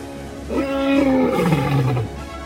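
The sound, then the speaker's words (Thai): A lion lets out one long, loud roar lasting about a second and a half. Its pitch starts high and slides downward before cutting off. No one speaks. “มันมีหน้าที่ขึ้นไปบนยอดเขาไปดูสัตว์ที่จะเป็นอาหาร แล้วก็กลับลงมาบอกราชสีว่า ข้าพระเจ้าอยากกินเนื้ออย่างโน้นน่ะนายท่าน จงแผดเสียงเถิด”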